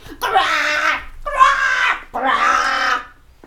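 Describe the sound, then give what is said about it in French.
A voice imitates a baby crow's caw three times in a row: loud, harsh, drawn-out croaks with short pauses between them, with no other sounds around. “Et toute la nuit, il fit des vocalises.”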